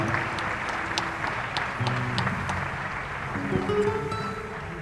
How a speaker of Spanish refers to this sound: Sí, un aplauso para el Diego, no para mí, para él, que está acá.